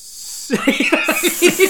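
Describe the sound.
A person imitates a snake with a long, drawn-out hissing S, fairly loud, broken by quick rhythmic voiced bursts that sound like stifled laughter.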